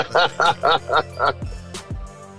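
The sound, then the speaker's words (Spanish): Seagulls being fed crumbs at Daytona Beach, Florida, call in a quick series of five loud, harsh cries, followed by a few lower, duller sounds as the calling fades out. “Bueno, sí, le está regalando migajas a, las gaviotas.”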